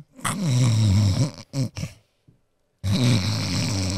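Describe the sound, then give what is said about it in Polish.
A person imitates a dwarf's loud, rumbling snores with their voice: a long guttural snore, a couple of short snorts, a brief pause, then another drawn-out snore, loud. “Słychać chrapanie krasnoluda. Zaprezentuj.”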